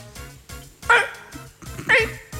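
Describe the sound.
A person imitates a fox barking: two loud, sharp, yelping barks about a second apart, over a low rhythmic background murmur.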